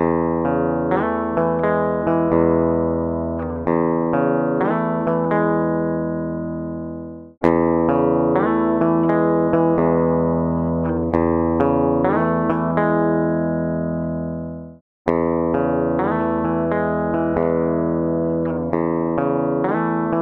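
An SG electric guitar plays the same sustained, chiming phrase three times in a row, first as a clean signal and then compressed, through an Apogee interface. Each pass is about seven seconds and cut off abruptly, with the tone sounding evenly loud, no voices.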